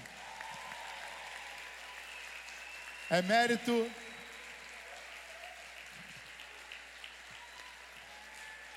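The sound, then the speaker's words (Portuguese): A church audience applauds the group leaders steadily throughout, a dense, even clatter of many hands clapping, while a man's voice briefly speaks over it partway through. “Esses irmãos merecem uma salva de palmas, não merecem?”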